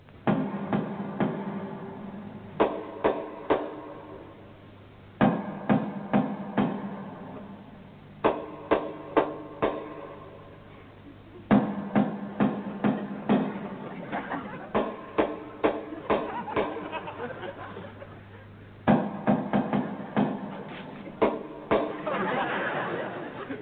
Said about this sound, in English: Ah! this is the house, and I shall now give the secret knock that only he and I know.